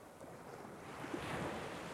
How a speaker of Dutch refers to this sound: Je hoort de golven.